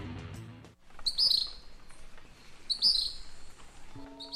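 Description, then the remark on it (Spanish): Two sharp, high chirping calls from a gray kingbird (pitirre) ring out about a second and a half apart over a soft outdoor hiss, clear, with no voices. “Los pitirres vuelan por nuestras islas para encontrar alimento.”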